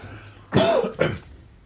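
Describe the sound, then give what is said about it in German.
A person clears their throat and coughs twice in quick succession, two short, rough bursts, with faint background hum and no talking. “Entschuldigung, ich muss mich kurz räuspern, husten, Achtung.”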